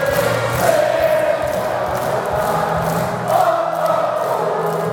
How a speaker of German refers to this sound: aber das Publikum hat das intoniert vor dem Match